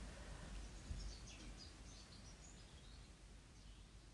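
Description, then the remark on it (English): Faint birdsong of small, fat, round birds at the top of a tree as the sun starts to set, light high chirps and short trills scattered across a few seconds over a steady outdoor hiss and low rumble, with no one speaking. “I can kind of see them at the top of the tree. They're really, really fat little round ones.”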